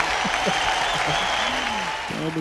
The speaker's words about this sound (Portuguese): Palmas!